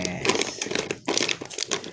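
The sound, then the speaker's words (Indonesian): Plastic packaging crinkles and crackles as it is torn open by hand without tools or scissors at the Sepang circuit, a dense run of sharp rustling bursts, with a brief pause midway before the crackling resumes. “Oke Berisik sih Cah Mau podcast aja heboh loh. Buka ini Heboh loh. Gak ada alat lo Gak ada gunting Gak ada gunting oh.”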